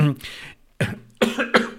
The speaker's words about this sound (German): Ah, ich huste heute den ganzen Tag.